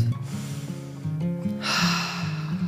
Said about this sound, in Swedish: Ta ett par djupa andetag och försök vara medveten och närvarande eller något.